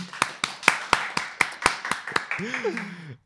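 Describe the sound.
Brief applause for a national athlete, called for by the host: about ten sharp, evenly spaced claps in a quick steady rhythm, with a voice calling out over the final claps before they stop.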